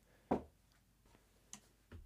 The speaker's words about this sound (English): someone's knocking on my door.